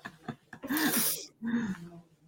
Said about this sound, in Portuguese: É, mas eu vou espirrar, hein, gente?